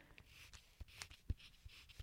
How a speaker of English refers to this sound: Can you hear that? The sound of my notebook. I'm flipping through the pages, and I'm going to write it really hard with a pencil. Here I go.